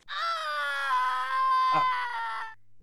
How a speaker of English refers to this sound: her um, motorcycle screeches to a stop as she her concentration fails and she flies off of her bike and rolls to the ground and starts screaming in immense pain.